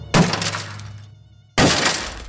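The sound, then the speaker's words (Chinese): Two heavy crashing impacts about a second and a half apart, a bathroom door being smashed until its panel splits down the middle and opens a gap, each a loud, sharp hit with a cracking, rattling decay and no voices. “终于，洗手间的门板从中间裂开，露出了一个缝隙，眼看在外面的东西要闯进来了。”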